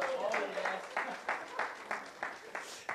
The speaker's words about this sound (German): Gibt es irgendeine Person, die noch weiß, was sie am 9. Februar 2011 äh, gemacht hat? Ah, ein Applaus hier!